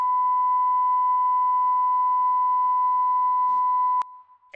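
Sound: censor bleep tone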